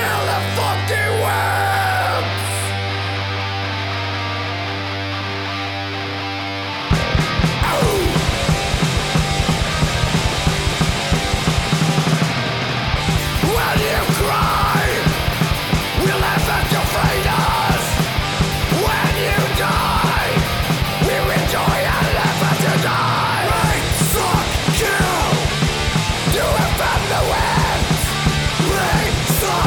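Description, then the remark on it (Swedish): A rough home recording of crust punk (Swedish käng) played by two people: a droning, sustained intro for several seconds, then fast pounding drums, heavily distorted guitars and hoarse shouted vocals crash in loud and relentless. “Oavsett då, jag och eh, en av våra gäster, vi, vi spelade in lite käng.”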